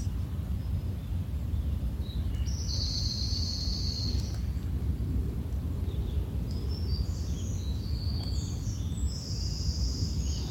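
Birds chirp in a forest, high trilling calls arriving in two longer bursts, over a steady low rumble of outdoor ambience. No one speaks.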